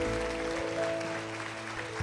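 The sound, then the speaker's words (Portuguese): An audience claps steadily for about two seconds to applaud Jesus, a dense, even wash of applause with no voices, over a sustained low droning tone. “Vamos aplaudir Jesus mais uma vez.”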